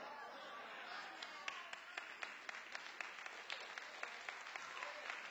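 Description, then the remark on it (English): An audience applauds steadily, the dense wash of many hands punctuated by sharper individual claps that stand out every fraction of a second throughout. “I mean, if you don't clap, let everybody clap.”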